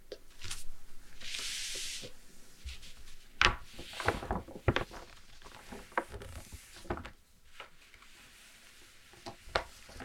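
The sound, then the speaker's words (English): A large paper road map of South Africa is handled and flipped over in Austria, with a long rustling sweep followed by several sharp crinkles and soft thumps as the sheet settles. No one speaks. “All right, let's turn this over for a moment.”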